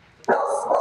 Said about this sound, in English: Sorry, that's my dog.